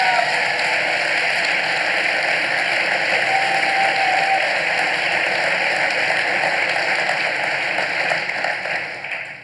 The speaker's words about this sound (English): Uh, so, one more time, just please give a, a, warm round of applause to my guests,